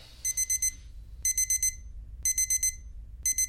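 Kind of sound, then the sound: household object, alarm clock ringing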